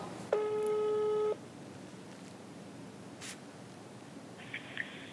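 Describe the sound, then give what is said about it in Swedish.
An outgoing phone call to a woman rings out with a single steady ringback tone lasting about a second, followed by quiet line hiss and a faint, brief electronic blip near the end. “Jag tycker vi ringer henne.”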